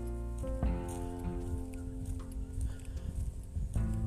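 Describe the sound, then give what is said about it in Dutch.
Footsteps crunch along a sandy dune path in the Soesterduin on a warm summer day, in a steady walking rhythm, with a continuous low tonal hum underneath and a few sharper scuffs. “hoort mijn voetstappen waarschijnlijk op de achtergrond.”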